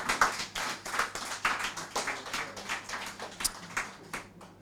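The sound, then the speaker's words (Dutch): An audience claps steadily, a dense wash of many hands with a few sharper individual claps standing out; no one speaks. “Applaus!”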